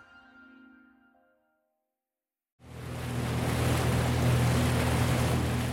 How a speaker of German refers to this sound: hält mit seinem Motorboot über der mit 69 Meter tiefsten Stelle des Sees und lässt eine Messsonde knapp unter die Wasseroberfläche gleiten.